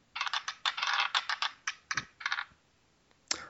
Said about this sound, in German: Du, äh, dann würfel doch mal, dass wir mal unser, unser heutiges Thema finden.